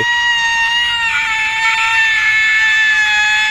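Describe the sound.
A woman's loud, shrill, banshee-like shriek holds one piercing high pitch steadily for several seconds without a break, with no talking over it.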